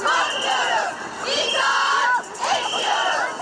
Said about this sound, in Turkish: Kadınlar polis tarafından İstiklal Caddesi'ne çıkartılmayınca onlar da İstanbul turuna çıktılar. Önce Tophane'ye ardından Karaköy'e yürüdüler. Şimdi caddeyi trafiğe kapattılar. Haliç'e doğru ilerliyorlar. Cadde cadde sokak sokak haykırdı kadınlar.